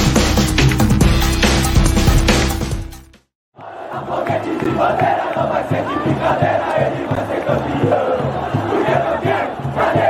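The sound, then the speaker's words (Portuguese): A crowd of São Paulo fans at the Morumbi stadium roars loudly, breaks off for a brief moment of silence, then surges back with massed chanting and cheering over a steady, pulsing rhythm, as a match São Paulo won 3–1 over Santos in heavy rain ends. No one speaks. “arquibancada tricolor terminou agora no Morumbi, São Paulo 3 a 1 no Santos, muita chuva, campo alagado, tudo aquilo que poderia favorecer o peixe, mas favoreceu o tricolor, né?”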